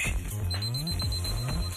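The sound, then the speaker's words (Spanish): An electronic alarm on a smart device, set by a virtual assistant, chimes in a repeating melodic pattern, steady and fairly loud, with low tonal notes rising and falling for the short duration, no voices present. “Ordena tu asistente virtual que ponga la alarma de tu dispositivo inteligente.”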